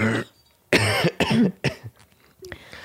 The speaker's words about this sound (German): ja, ich ähm, bin eigentlich über den Berg mit meiner Erkältung, aber ein bisschen husten tue ich immer noch.